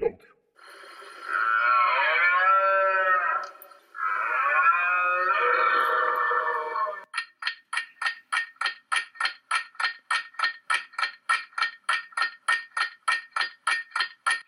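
A deer calls with two long, wavering bellows, then breaks into a steady run of short, sharp, evenly spaced calls, loud with no other sounds around.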